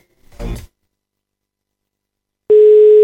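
A brief muffled burst, then about two seconds of silence, before a loud, steady telephone tone starts abruptly and holds to the end, the drone of a call ringing unanswered.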